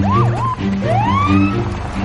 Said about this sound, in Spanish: Más tarde, en el exterior, un coche de policía llega hasta el parque.